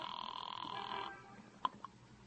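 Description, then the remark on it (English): A telephone rings with a steady, buzzy tone for about a second, then stops, followed by two sharp clicks like a handset or dial being worked. No voices. “Don't mind if I use your phone, citizen.”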